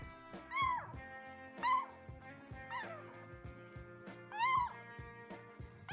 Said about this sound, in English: Don't think I don't have conversations with the cats whenever, like, you know, they talk back and forth with me. That totally happens.